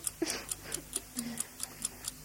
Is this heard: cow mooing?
no